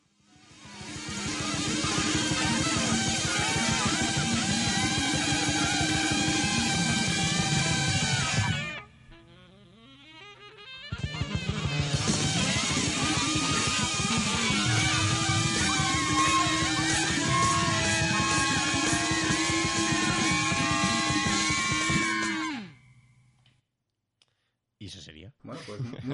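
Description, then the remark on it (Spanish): The final 30 seconds of an album's first track, loud, dense and harsh with a chaotic, almost screaming texture. It briefly drops out, surges back, then cuts off into near silence with a few faint knocks. “Vamos, vamos a escuchar los últimos 30 segundos de, de la primera pista.”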